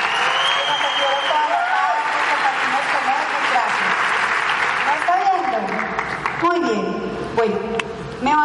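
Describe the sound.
Sustained audience applause fills the room, dense and loud, with cheers and voices mixed in; the clapping continues throughout while someone talks over it toward the end.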